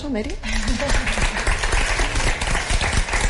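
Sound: audience applause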